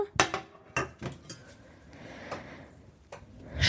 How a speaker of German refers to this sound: So, und dann schnappe ich mir meine Pfanne